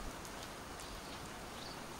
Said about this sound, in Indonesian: Alam pun memberi backsound. Kicauan burung berpadu sisa hujan semalam yang ragu-ragu menyentuh tanah.